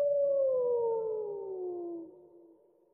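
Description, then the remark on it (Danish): A wolf lets out a single long howl, a smooth sustained tone that slowly slides downward in pitch and fades away over a few seconds, heard alone with no talking. “Det var dejligt med det ulv.”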